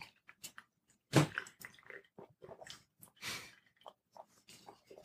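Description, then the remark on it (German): Wet mouth sounds of someone taking a quick sip of Tuba Classic water before a tasting: soft clicks and gulps, a couple of louder breathy bursts, and faint swallowing, with no talking. “So, warte mal, ich muss noch mal einen kurzen Schluck Wasser nehmen vorher.”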